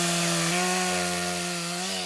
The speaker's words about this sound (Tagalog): Hanggang sa makakita kami ng isang puno na mataas. Tuwid ang katawan nito at may mga sanga na tuwid din. Agad namin itong pinutol gamit ang chainsaw.